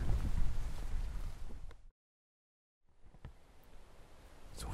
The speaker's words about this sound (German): Wie ihr hört, kommt jetzt auch ein bisschen Wind auf. Das ist aber gar nicht schlimm, weil absolute Windstille auch nicht das Beste ist für die Jagd.